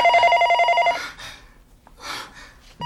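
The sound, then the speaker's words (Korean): A telephone on a desk rings in a rapid trilling burst for about a second, pauses, then starts ringing again, loud. “책상 위에 놓여 있는 전화가 울렸다.”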